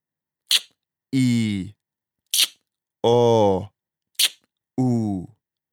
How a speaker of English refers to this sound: Okay, so what we're going to do is we're going to do just the click and then exhale the vowel sound. And we're going to keep them separate initially.